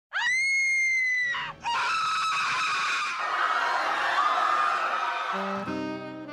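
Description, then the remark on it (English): Loud, piercing screams from several people: a sustained shriek opens, then overlapping yells and cries blend into a harsh, noisy wall of screaming that continues to the end. “That's right, we're ending the show with news about screaming.”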